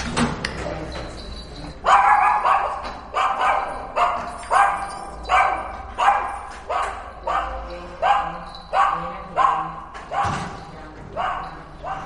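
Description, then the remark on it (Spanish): A female dog barks shrilly and steadily, over a dozen sharp, high-pitched yaps in an even rhythm after a brief quieter opening, loud. “y cuando mete la llave abajo en el portal, la perra ya ladra.”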